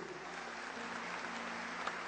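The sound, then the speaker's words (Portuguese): A church audience claps steadily, a dense, even wash of applause with no voices over it, sustained for the whole couple of seconds. “Você pode dar uma salva de palmas a esse povo lindo.”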